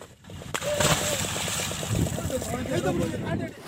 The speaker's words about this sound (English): In fact, they are out and about rescuing dugongs trapped in fishing nets. Like this young dugong that you hear fishermen struggling to lift and throw into the water.